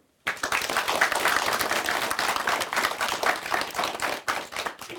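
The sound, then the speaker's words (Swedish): Audience applause for class 6B from Övernäs, winners of a vote for the best class cheer chant, starts abruptly and holds steady for about five seconds, a dense crackle of many hands clapping at once, with a brief dip and surge near the end and no voices over it. “En applåd för dem.”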